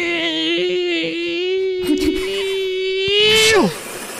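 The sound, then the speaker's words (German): A voice imitates the grinding of a coffee machine with a steady, buzzing hum held for about three and a half seconds, fairly loud, then trailing off with a quick downward slide in pitch. “Mach deine beste Impression von deiner Kaffeemaschine. Okay erstmal kommt ja dieses Malen-Geräusch, das ist so.”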